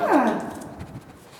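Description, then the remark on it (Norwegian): A small, shaggy white terrier with pointed ears gives one short, high bark that slides down in pitch, fairly loud, followed by a second of quiet rustling. “Kommer du bjeffende?”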